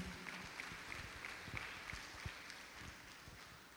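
A church audience claps for the Lord at night in a steady, dense patter of applause that carries on without a break, with no one speaking over it.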